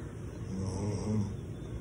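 A man snores steadily while asleep, a low rumbling drone rising into a louder snore near the middle, fairly quiet, with no one speaking.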